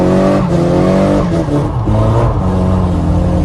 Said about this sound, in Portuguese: o maluco faz o drift e filma.